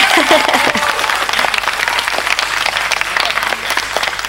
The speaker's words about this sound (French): On applaudit